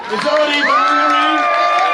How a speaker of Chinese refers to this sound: 这头群众掌声鼓励，因为比赛竟然还要喝下整杯辣椒酱。